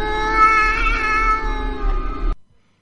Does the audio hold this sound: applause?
no